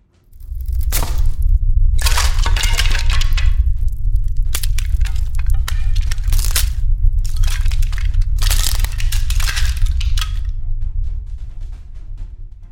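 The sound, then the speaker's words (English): A heavy structure cracks and gives way, with sharp splintering bursts over a deep, continuous rumble of crushing debris that stays loud before tapering off. “An ear shattering crack from above provided Arihant with a split second warning that the whole structure was about to collapse”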